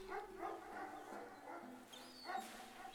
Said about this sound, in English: By the steps of the ramshackle warehouse, the dark shape of a dog, held back by a chain, was barking furiously. Each bark began deep in the dog's belly and extended itself in the air, like a large balloon being popped.